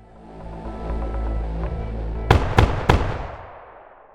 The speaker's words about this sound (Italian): Alla reception, il concierge Enrique Martinez Rueda sente provenire alcuni colpi di pistola dalla camera in cui dorme Francisco Paredes. Assurdo che nel motel in cui lavora ci siano rumori così, ma cosa è successo?